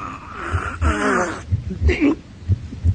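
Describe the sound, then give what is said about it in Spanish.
A horrid, wet, drawn-out sucking sound of a vampire drinking blood from a young woman's neck, with wheezy strained breaths over a steady pulse of low, heavy thumps like a heartbeat. “Se oye seguidamente un horrendo ruido de succión.”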